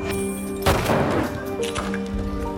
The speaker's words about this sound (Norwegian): Og han kan ikke kjøre ned dem så da må jeg skyte. Så høres lyden av pistolskudd.